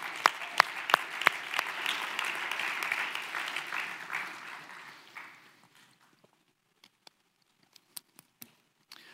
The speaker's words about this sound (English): Come on, how about applaud some courage?